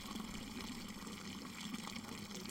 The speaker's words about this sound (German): Da reichten deine Fingerchen noch nicht bis zum scharfen Strahl des Dorfbrunnens.